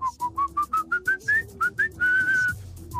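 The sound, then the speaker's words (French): A person whistles a bouncy tune: a run of short, rising staccato notes followed by one long held note, clear and fairly loud, with no talking. “Aujourd'hui, moi, je siffle à tout va.”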